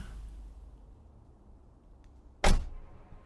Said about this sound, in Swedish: Gick bildörren igen?